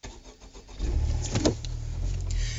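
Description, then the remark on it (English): A sports car with a turbocharged VTEC engine, six-speed manual gearbox and front-wheel drive cranks briefly and fires up, then settles into a deep, steady idle rumble, with no voices. “Okay, let's take it out for a spin.”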